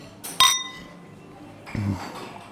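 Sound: wine glasses clinking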